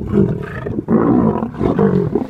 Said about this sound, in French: Le gros lion là, c'est Jet. C'est le plus puissant des animaux. Sa gueule, elle vous broie un petit chien en deux coups de dents.